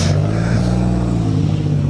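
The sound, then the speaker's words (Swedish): A Volvo rally car engine at the 2019 Midnattssolsrallyt (Midnight Sun Rally) drones loudly and steadily at a low, even pitch for the whole moment, with a faint hiss of rushing air on top and no voices. “En Volvo slår i överallt.”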